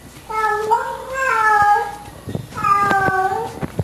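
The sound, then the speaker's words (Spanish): A female cat meows twice in long, drawn-out, tonal cries, the first slightly wavering and the second rising then falling, fairly loud with a little background noise between. “Au, dice, le duele. Así como, au. Pobrecita la gata, au.”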